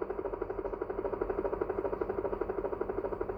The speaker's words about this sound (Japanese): ヘリ来てんじゃん。ちょっとヘリ来てんじゃん。危ねえ。